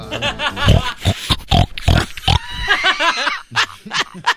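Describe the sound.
A person imitates a pig with a rapid series of loud, nasal oinks and grunts in an uneven rhythm with brief pauses between bursts.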